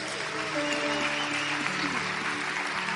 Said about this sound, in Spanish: Dale la ofrenda de aplauso.